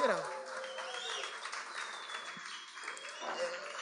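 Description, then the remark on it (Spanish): An audience breaks into applause to celebrate a two-year anniversary, a dense wash of many hands clapping steadily for several seconds at moderate loudness, with some voices and cheering mixed in. “dos años, tenemos para alegres, un aplausito”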